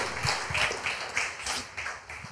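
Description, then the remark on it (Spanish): An audience claps together in a steady, rhythmic beat for the name of the Lord, the sharp hand claps repeating roughly every third of a second at moderate loudness with no voices over them. “Aplauda el nombre del Señor.”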